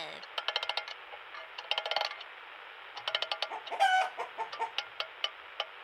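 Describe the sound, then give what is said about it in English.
A chicken clucks in quick, rhythmic bursts of short, sharp notes, clear, with a brief squawk in the middle and nothing else in the background. “Okay, chicken, here goes. I'm lowering you down slowly. As you get closer to the stage, start playing.”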